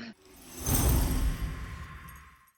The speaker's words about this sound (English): Actually, grinding sound you can hear is Indy chewing a big wooden block.